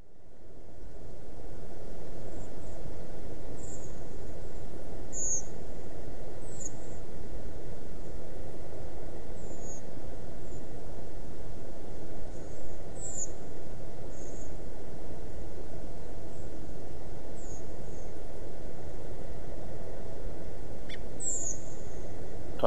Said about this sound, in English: So and that's the reason they most birds migrate um, in flocks during the daytime, and then a lot of birds migrate at night. So I've sent you a recording of uh, Redwing, um, which I record um, on Landsort